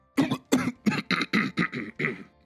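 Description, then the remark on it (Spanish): A man acts out choking and coughing after drinking from a plastic bottle and spilling it, producing a quick string of about eight harsh, voiced cough bursts, fairly loud, with no words spoken. “Se ahoga y tose.”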